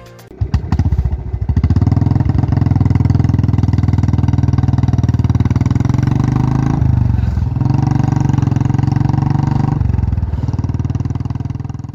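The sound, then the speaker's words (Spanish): A Royal Enfield motorcycle engine starts with a few sputtering pops, then settles into a loud, steady, low thumping rumble, with two brief dips in revs partway through. “Este es el sonido de una Royal Enfield.”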